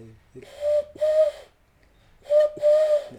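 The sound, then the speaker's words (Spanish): A person whistles an owl-like hoot, two breathy low hoots, a pause, then two more, fairly loud with nothing else around them. “No si llegó un búho ahí.”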